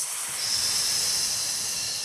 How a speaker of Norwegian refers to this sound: Det er at vi alle sammen nå tar og puster inn. Og så puster vi ut med å si en svak S mellom tennene.